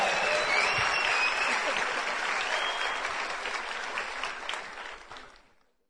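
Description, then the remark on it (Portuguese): An audience claps steadily for about five seconds as four people are called up to the front, a dense patter of many hands with a faint whistle early on, before the applause tapers off and fades out. “Aplaude aí, gente. Foi bem, bem de quem tá com frio mesmo.”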